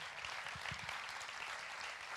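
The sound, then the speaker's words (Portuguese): Audience applause: a dense, steady patter of many hands clapping at once, fairly loud and even throughout, with no voices standing out. “Mais uma vez, palmas, por favor.”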